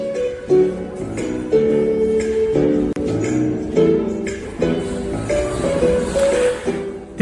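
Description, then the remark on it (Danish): Nighttime ambience at Vanløse S-train station in Copenhagen, Denmark, loud, full of sustained tonal squeals and hums that shift pitch every second or so over a steady background rumble, with no talking. “det er sådan lyden af natten på Vandløse station.”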